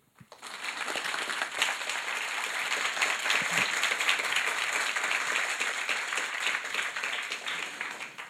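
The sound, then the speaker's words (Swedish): An audience applauds steadily for about eight seconds, welcoming the musician, there to talk about his book 'En droppe midnatt': a dense crackle of many hands clapping at an even, fairly loud level before tapering off at the end. No one speaks over it. “Eh, så bara ønsk de välkommen.”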